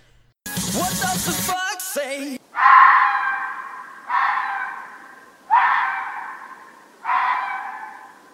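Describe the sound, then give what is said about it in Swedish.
A fox screams four times at night at steady intervals, each call a harsh, rasping shriek that trails off, following a brief burst of shrill, jumbled cries at the start. “Det brukar hända här också men när jag vaknar av det så brukar jag tänka att ah, men det är bara en räv.”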